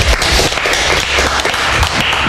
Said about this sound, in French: Bravo, on l'applaudit, il a sorti un secret.